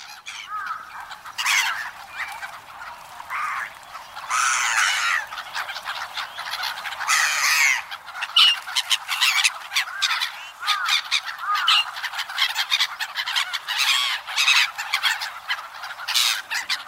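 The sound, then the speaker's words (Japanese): A flock of black-headed gulls calls continuously at Toneri Park in Tokyo, Japan, with harsh, scratchy cries overlapping in a busy, fairly loud chorus that never pauses, no voices present. “舎人公園（東京都）のユリカモメをお届けします。”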